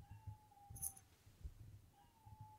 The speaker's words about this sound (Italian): Aspetta, Ah, c'è il mio gatto che sta miagolando in maniera impressionante, non so, sembra che sia qua dentro, invece è di sopra, ma, ma avrà acceso il megafono.